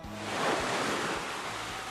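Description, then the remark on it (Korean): Ocean waves wash onto the beach at Naksan Beach in Gangneung, South Korea, in a steady, broad roar of surf that swells slightly midway, with a low rumble of wind underneath and no voices. “그리고 다음날 그 남자들과 강릉 낙산 해수욕장으로 떠났습니다. 민박을 얻어 짐을 풀고 바닷가에서 낭만을 즐겼습니다.”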